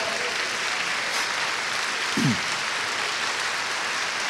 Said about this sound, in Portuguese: Glória a Deus, que essas palmas cheguem ao coração de Deus, amado.